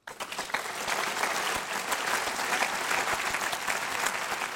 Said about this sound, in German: Großer Applaus im Publikum.